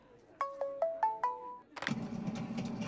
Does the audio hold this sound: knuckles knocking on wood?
no